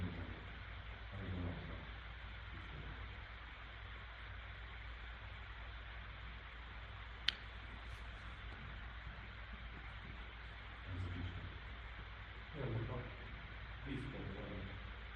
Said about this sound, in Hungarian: Ez nem a gépnek a... a lehet, hogy a gépnek a ventilátora, mert ez hangos. Akkor ezzel nem fogom tudni most változás, csak le nem hűti magát. a gépnek ilyen, ilyen, ilyen hidegben is melege van.